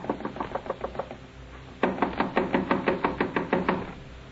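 Rapid, insistent knocking on the door of room 16 in a rooming house, someone demanding it be opened: a quick run of raps, a brief pause, then a louder, harder burst of steady pounding.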